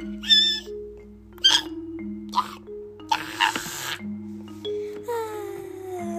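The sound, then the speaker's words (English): A voice imitates the character Sunny's nervous squeak: a run of short, high-pitched squeaky bursts, several quick chirps followed by a longer, wavering squeal, over a steady low hum. “That's Sunny's nervous squeak, or any type of squeak that she makes, because apparently she squeaks now.”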